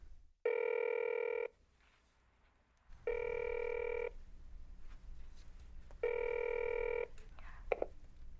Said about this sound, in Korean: 주머니에서 자신의 휴대폰을 꺼냈다. 저장해둔 7, 8의 전화번호를 꾹 눌렀다.